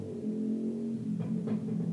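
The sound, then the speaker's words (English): A steady low engine drone of a motorbike going past hums throughout with a couple of brief brighter swells near the end; no one speaks. “You guys hear the motorbike going past?”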